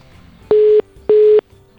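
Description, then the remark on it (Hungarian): Two short electronic telephone tones beep in an even rhythm, each a steady buzzy pitch lasting about a third of a second, clear, with no voices present, as a call back is placed. “Jó, akkor itt most vissza fogunk telefonálni, és újra...”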